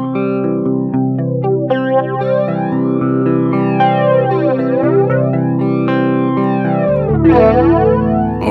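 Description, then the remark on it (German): Sustained electric guitar chords run through a modulation effect pedal, with sweeping, swooshing filter movement rising and falling across the tone; loud, with no talking. “Manual verschiebt die, die, die Frequenz. Die Center-Frequenz.”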